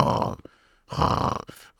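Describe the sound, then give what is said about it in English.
A voice imitates a man snoring with two rough, rasping inhaled snorts separated by a brief pause, then a short faint breath. Fairly loud, with no other sounds around it. “like that, like snoring.”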